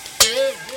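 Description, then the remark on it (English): A sharp, bright snap cuts in suddenly, followed by a wavering metallic twang that rings on briefly and fades, as a guitar string breaks while someone tries to fix a guitar in a workshop. “Oh, there goes another string.”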